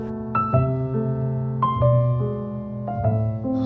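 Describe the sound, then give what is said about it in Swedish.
A melodic instrumental film theme plays clearly, with sustained harmonic notes changing every half second or so over a steady bass, moderately loud, no voices. “Och så lämnar vi podden med ett eh, tema från eh, filmen som heter Yatara och låter så här.”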